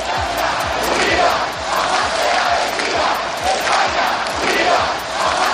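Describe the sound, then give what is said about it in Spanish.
A large crowd at a protest against the amnesty in Spain chants loudly in unison, a steady rhythmic roar of many voices repeating a slogan, with bursts of shouting rising and falling throughout. “Este cántico y carteles como Se vende España por siete votos han sido los más repetidos en todos los actos.”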